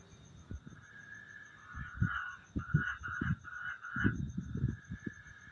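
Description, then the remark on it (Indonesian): Frogs croak in a rough, irregular series of low pulsing calls over a steady high-pitched drone of insects or night ambience. “kontol nih kodok anjing”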